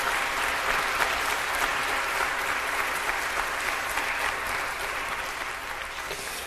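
A room full of people claps steadily for several seconds, a dense, continuous wash of applause that stays loud throughout and eases only slightly toward the end, with no voices standing out.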